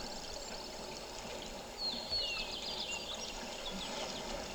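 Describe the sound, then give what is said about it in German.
A steady wash of sea water fills the whole stretch, a continuous hiss and rush, with faint high bird chirps briefly rising above it midway. No one speaks. “Und da auch du ein Kind der Natur bist, spürst du, wie hier am Meer.”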